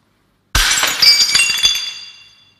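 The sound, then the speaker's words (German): A ceramic plate smashes with a sharp impact, followed by a scatter of tinkling shards clattering and settling over about two seconds, loud, with no voices. “Da liegen sie, die Scherben eines schönen Tellers.”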